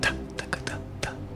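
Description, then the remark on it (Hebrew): A voice imitates the steady drum beat of the drummer in a Mahler symphony with short, crisp "ta" syllables, about five or six taps in a loose, even rhythm, moderately quiet. “וכל הזמן אנחנו שומעים את אותו מתופף.”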